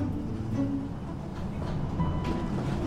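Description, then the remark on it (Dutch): Steady low rumble and rattle heard from inside a city tram carrying about twenty passengers, with faint squealing tones from the wheels on the rails, continuous and moderately loud throughout. “We zitten in de tram met, ik denk, twintig andere mensen.”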